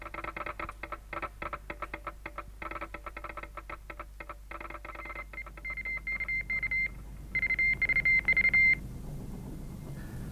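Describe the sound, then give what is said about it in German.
Rapid bursts of radio telegraph beeps, sent as a radio reply confirming receipt of a message: first dense clicking keyed pulses, then clearer sustained tone bursts in an on-off rhythm, fairly loud with no voices. “Funk zurück und bestätige den Empfang.”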